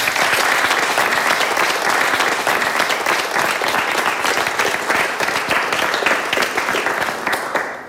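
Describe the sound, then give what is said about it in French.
Sustained applause from an audience for the startup Ismo, announced as one of two winning startups, a dense, steady wash of many hands clapping at full volume for several seconds before easing slightly at the end. “Donc, les deux startups que l'on a retenues, la première est Ismo, donc on peut applaudir Ismo.”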